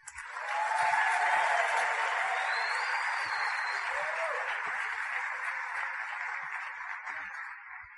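Sustained applause from an audience in a coliseum welcoming a man to the stage, a dense wash of clapping that swells quickly and holds steady for several seconds with a few faint whistles or cheers mixed in.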